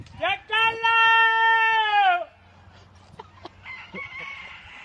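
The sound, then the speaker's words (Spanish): A rooster crows once, loud, a long drawn-out call of about two seconds that drops off at the end, followed by quieter, softer sounds in the background. “Hasta los gallos se los piden.”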